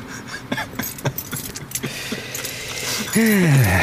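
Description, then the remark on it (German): Keys jangle and clink in quick, irregular bursts as someone fumbles through a key ring at a door lock, unable to get the right key in; near the end a rising then falling mechanical whine starts up. “Ich krieg den, nicht mal den richtigen Schlüssel da rein.”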